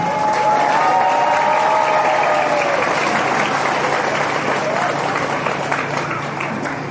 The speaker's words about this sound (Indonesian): Tepuk tangan buat pesantren Darussalam